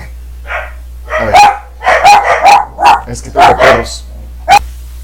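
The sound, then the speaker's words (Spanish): Several small dogs yap in quick, irregular bursts of sharp, high-pitched barks, fairly loud, over a faint steady low hum, ending with one last isolated yip. “bueno, ya caían los perritos.”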